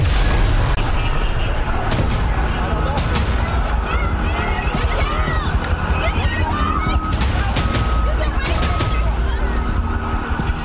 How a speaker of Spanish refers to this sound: Escucho una explosión tremenda, un movimiento horrible, no como un temblor.